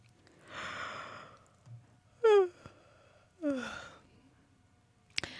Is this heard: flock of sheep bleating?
no